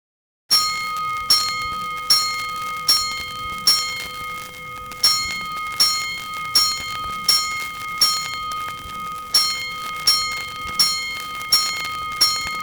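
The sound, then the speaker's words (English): A fire station alarm bell strikes five times in a steady rhythm for a five-alarm fire, each loud, bright clang ringing on with a lingering metallic hum. No voices, just the bell, clear. “Five bells. Stand by all stations.”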